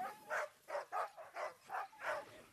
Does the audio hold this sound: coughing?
no